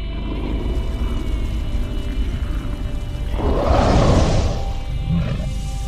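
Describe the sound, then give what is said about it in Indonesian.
A monstrous, terrifying barking roar, unlike any creature living on the earth's surface, with harsh snarls, swells up loud over a low, ominous rumbling drone in the underworld beyond the river Acheron, then fades back into the dark background. “Suara gonggongan yang begitu mengerikan berbeda dengan suara makhluk apapun yang menghuni permukaan bumi.”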